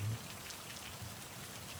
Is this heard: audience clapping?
no